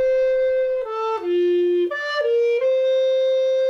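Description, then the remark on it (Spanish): An alto recorder plays a short, smooth melody of several sustained notes, dipping to a long low note before rising again, with a round, clear tone and no talking. “Esta es la alto o contralto, lo he encontrado con los dos nombres, y ya notáis que va cambiando el sonido.”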